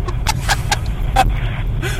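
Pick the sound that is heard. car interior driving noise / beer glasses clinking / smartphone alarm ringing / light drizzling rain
car interior driving noise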